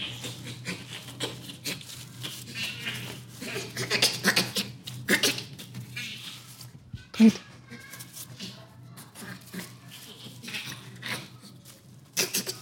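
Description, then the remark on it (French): A chimpanzee laughing: breathy, raspy panting grunts in quick repeated bursts, moderately loud, continuing for several seconds over a low steady background hum. “Ce que vous entendez là, c'est un rire de chimpanzé.”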